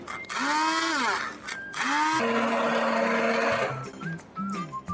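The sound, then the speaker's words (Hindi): A mixer grinder blending soup whirs loudly in two or three short bursts, its motor pitch rising as it spins up, then settling into a steady, heavy grinding drone before cutting off. “यहाँ पे हमारा सूप भी रेडी है थोड़ा सा मिक्सी घुमा लेते हैं”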